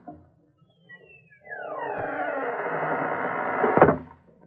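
A long, groaning creak of a door swinging slowly shut, rising loud for a couple of seconds before ending in a solid thump as it closes. No voices.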